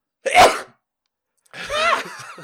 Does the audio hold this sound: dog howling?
no